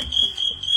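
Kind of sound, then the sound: insect, cricket chirping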